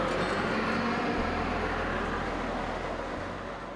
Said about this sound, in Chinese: 说着说着，火车就来了，我们准备上车，准备前往第三宝新浦车站。